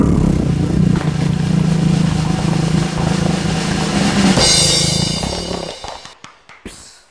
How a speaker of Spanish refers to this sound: pero, pero, pero, drumroll.